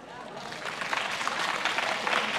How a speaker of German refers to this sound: Wer von euch fühlt sich in seinem Job gestresst. Ab und zu, ich brauche einmal einen Applaus für alle, die sagen, ich fühle mich ab und zu gestresst.